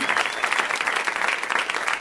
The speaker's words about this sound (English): So maybe you could clap for my girlfriend